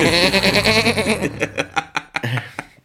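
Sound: goat bleating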